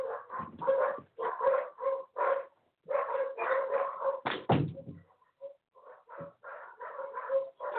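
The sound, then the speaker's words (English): Small poodles bark rapidly and repeatedly in a home, a steady yappy chorus with a brief pause and a door thud partway through. No one speaks. “I have no idea what they're barking at.”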